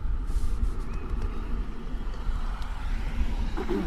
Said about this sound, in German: Warten wir erstmal das Auto ab.